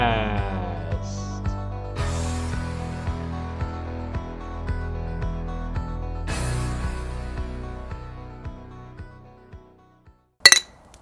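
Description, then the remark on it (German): Sustained ringing musical tones fade out, then near the end a single bright, sharp clink of glasses touching in a toast rings out loudly and briefly, in a garden in Chemnitz, Germany. No one speaks. “Ähm, ja, warum hat es hier erstmal geklirrt?”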